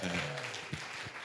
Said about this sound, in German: Und die ganzen Kindergottesdienstmitarbeiter, lasst uns denen mal einen Applaus geben.